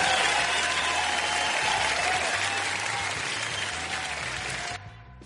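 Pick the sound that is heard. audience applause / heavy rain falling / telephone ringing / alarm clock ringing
audience applause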